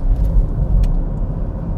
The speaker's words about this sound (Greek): συγγνώμη γι' αυτό, αλλά είμαστε στο αυτοκίνητο αυτή τη στιγμή